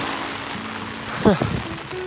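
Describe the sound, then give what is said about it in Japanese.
Heavy rain drums steadily on rainwear, a dense, continuous hiss throughout, with a brief voice sound breaking through midway, as the rain grows strong again on a park trail course where water has pooled. “めちゃくちゃ音うるさいと思いますけどいやまあねそんな感じではい、また雨が強くなってきたんで、今ね、ちょうど公園も折り返しという感じで、トレイルコースを戻って、”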